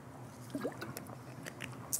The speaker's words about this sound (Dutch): Eerst even een slok.